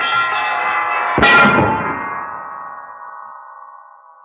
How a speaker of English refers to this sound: That heavy bell hurtling downward hit Mudge a solid blow, killed him instantly.